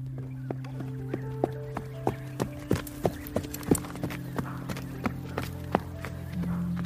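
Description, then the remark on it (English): A white horse's hooves clop in a steady, quick rhythm as it slowly gallops toward the listener over a soft sustained musical drone, the hoofbeats growing louder and closer midway before easing slightly. “He is slowly galloping towards you.”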